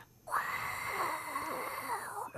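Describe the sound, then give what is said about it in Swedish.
A person exhales a long, breathy hiss through the mouth to imitate the roar of a stadium crowd, one steady sustained whoosh lasting about two seconds, fairly loud. “alltså förr så gjorde man sådär när det skulle låta som en hel, ett, en stadion.”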